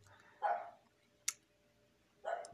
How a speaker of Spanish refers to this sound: se escuchan por ahí unos ladridos, es mi perrita, perdón